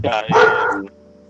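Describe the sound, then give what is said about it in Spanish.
A dog barks behind the speaker, two quick, loud, harsh barks close together, followed by a brief quiet stretch with a faint steady hum in the background. “El perro, el perro que está ladrando acá atrás mío.”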